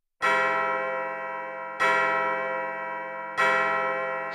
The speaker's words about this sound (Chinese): 时钟已经走到了零点。森林里敲响了新年的钟声。